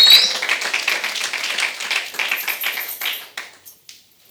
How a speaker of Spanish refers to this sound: Denle un aplauso fuerte al Señor, hermano.